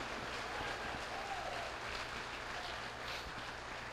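Sustained applause from an audience at a sermon, applauding God, a dense, steady wash of clapping at even loudness throughout, with faint voices mixed underneath.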